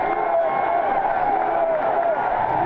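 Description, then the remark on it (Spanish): A large crowd at a rally cheering a man continuously, a dense roar of many voices with shouts and whoops rising above it, steady and loud throughout. “Miren, miren el nivel, la cantidad de gente que estaba vitoreando ese hombre”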